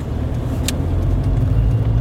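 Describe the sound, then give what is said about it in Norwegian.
A car drives away from a farm in the middle of the day at a steady pace. Its engine rumble and road noise hold a constant low drone, with a brief faint click partway through and no voices. “Kollegaen min og jeg forlater gården, sånn som de to maskerte mennene og lillegutt gjorde for ca. et år sia. Når vi kjører, er det midt på dagen.”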